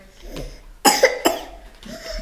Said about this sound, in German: Wer hustet, wer hustet fliegt raus.